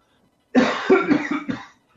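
coughing fit

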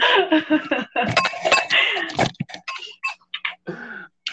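glasses clinking

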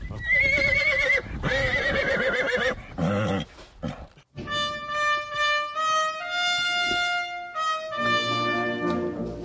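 horse neighing

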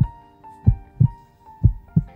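heartbeat sound effect

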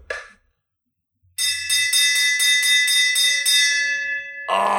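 victory bell being rung

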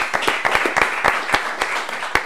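applause

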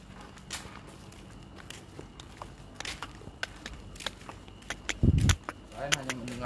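footsteps walking

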